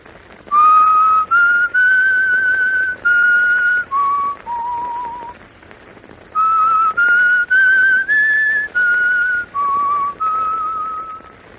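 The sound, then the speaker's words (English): A person whistles a short melody over the telephone in two similar phrases, clear steady notes rising and falling with brief gaps between them, heard alone with no talking. “I'll whistle the tune for you over the telephone.”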